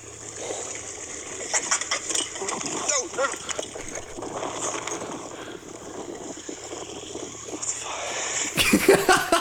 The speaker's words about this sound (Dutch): nou, je hoort dus eerst de aap. Dan hoor je mij